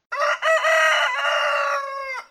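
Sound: rooster crowing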